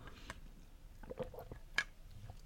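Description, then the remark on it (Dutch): Someone takes a sip of water, with soft wet mouth sounds, a swallow and a few small clicks over quiet room noise. “Zo, ik moet even een slokje water drinken.”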